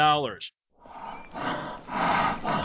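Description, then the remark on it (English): A grizzly bear roar: a brief tonal cry, a short pause, then a loud, rough, rumbling roar that swells in waves for about two seconds, unaccompanied. “You are listening to the most massive carnivorous ground beast in the world.”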